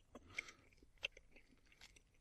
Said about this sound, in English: Better not chew it on the podcast. It's podcasting 101. First day of class, you show up and it says, Don't chew gum into the mic on the chalkboard before the class even starts.